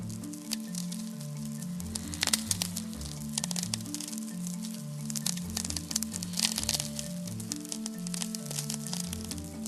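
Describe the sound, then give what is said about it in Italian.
VLF radio crackles from lightning striking about 2000 km or more from the radio receiver: a dense, continuous sizzle of sharp clicks and pops like popcorn popping, with brief louder bursts, over a low, steady humming drone. No one speaks. “Questi suoni sono dovuti a fulmini che scoccano lontano dalla nostra ricevente di radionatura.”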